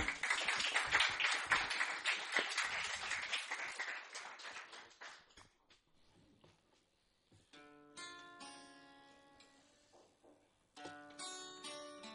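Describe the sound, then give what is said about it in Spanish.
A crowd at the tertulias del Volander applauds with loud, dense clapping for about five seconds, then it thins out and fades, and soft instrumental music with sustained tones begins. “Venga, un aplauso, gracias.”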